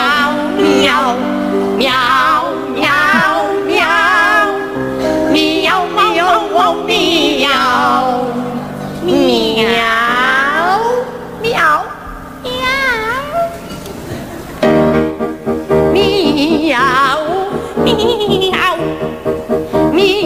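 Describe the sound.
Two singers sing a comic duet made entirely of meows on a 1990 Televisión Española show, imitating cats with swooping, operatic wails that trade back and forth, loud and continuous over steady musical backing.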